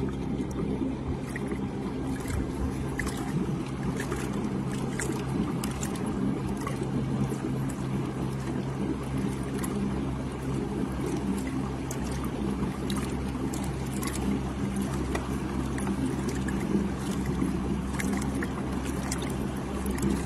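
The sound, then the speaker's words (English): A small fishing boat's repositioned motor drones steadily, a constant low hum with water splashing and hissing against the hull throughout, no voices; the boat runs at a top speed of about 3.9 to 4 miles an hour at Muddlety Valley. “So I repositioned my motor a little bit, and my top speed, as you can see, fluctuates from 3.9 to 4 point miles an hour in this big fish 103.”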